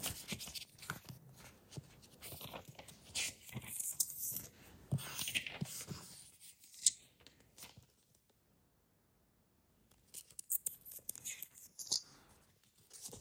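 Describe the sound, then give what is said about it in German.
Quiet papery rustling and crinkling as pages of a thick book are flipped, in two bursts separated by a few seconds of near silence. “Umblättern in dem Schinken hier.”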